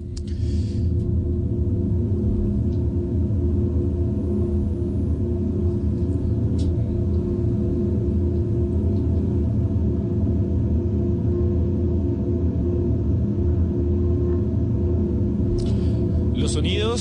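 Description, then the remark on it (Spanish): A dark, ominous soundtrack of a TV series about one of the worst nuclear catastrophes in history: deep rumbling drones hold steady and loud for the whole stretch, with faint hissing textures at the start and end and no talking. “Aquí está la banda sonora de esta serie.”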